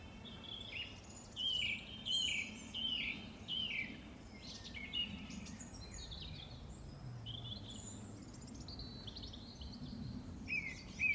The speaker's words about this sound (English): There's a nut hatch there as well. So. Wow. Just in an oak tree.